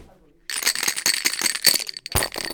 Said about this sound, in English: Take this demonstration of Pai Gow, a common table card game. Shake the dice, please.